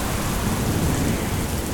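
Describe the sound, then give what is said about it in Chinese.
A sudden heavy downpour of rain in the middle of the night pours down in a dense, steady hiss with a low rumbling undertone, unbroken for the whole moment and with no voices. “半夜啊，一阵骤雨，小和尚早晨冲进了禅房。”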